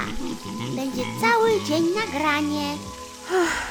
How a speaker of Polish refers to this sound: Smażę sobie jajecznicę, a mógłbym lepić donicę.